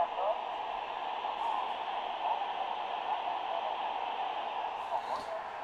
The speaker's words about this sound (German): Auch hier hören wir einen Unterschied. Der Sanjin rauscht weniger, klingt beruhigter. Der Sony rauscht mehr, ist aber irgendwie lauter.